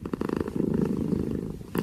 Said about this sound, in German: Und wie sieht's aus? Merkt ihr schon? Die heilende Wirkung des Katzenschnurrens. Katzenschnurren soll tatsächlich Heilungsprozesse beschleunigen können.